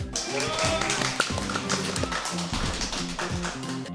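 A crowd applauds steadily for several seconds, a dense wash of many hands clapping at once, with some low musical tones sounding underneath.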